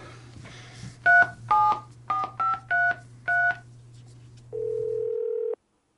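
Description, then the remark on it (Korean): Seven quick telephone keypad tones beep in an uneven sequence as someone dials a phone number that turns out not to exist, over a low steady hum, followed by a longer single electronic tone that cuts off abruptly, with no one speaking. “지금 가신 번호는 없는 번호입니다. 다시 확인하시고 가어주십시오”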